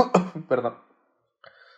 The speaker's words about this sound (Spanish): ¿Qué? Salud. No sé si fue estornudo o fue Así que salud. De hecho. Fue tos.